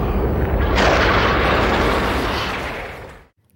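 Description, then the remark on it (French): A loud, booming thunder crash from a children's film scene with many lightning flashes and a big wolf's face, with a sharp rumbling onset that swells into a dense roar, holds for about three seconds, then cuts off abruptly into silence. No voices. “imaginez la scène avec une grosse gueule de loup comme ça et les nombreux éclairs.”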